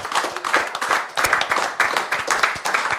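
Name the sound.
audience applause and clapping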